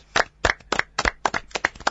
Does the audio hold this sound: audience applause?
yes